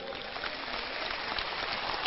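Sustained audience applause, a dense, steady wash of many hands clapping at even loudness throughout, with no voices standing out.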